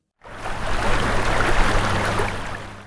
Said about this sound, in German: Hören Sie das? So hört sich's an, wo ich gerade stehe das Wasserplätschern. Das kommt von dem Bach direkt neben mir.